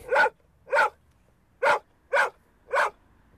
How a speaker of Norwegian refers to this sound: Øy, det er en hund. Det er lyden av friluftsliv. Lag en lyd, hund. Lag en lyd. Ja, det er nok.